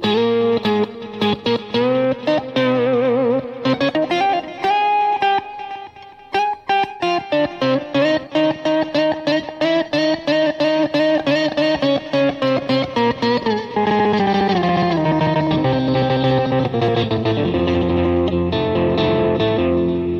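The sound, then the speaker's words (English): A Fender electric guitar plays an original piece through heavy effects, with distorted, chorus-thickened tones, sustained notes and quick rhythmic passages that shift in pitch, loud and steady throughout with no voices. “It's Gibbs Sunday, but we're playing Fender.”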